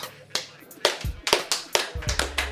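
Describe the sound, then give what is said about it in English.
Sparse, uneven clapping from a small group where not many people are present, roughly a dozen sharp, bright claps scattered over a couple of seconds, with a faint low hum underneath. “There's not as many people here, so you get a little clap.”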